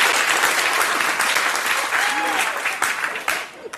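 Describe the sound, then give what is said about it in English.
A loud, sustained burst of studio audience applause with scattered cheers and whoops, dense clapping that tapers slightly at the end. “What a ridiculous crowd.”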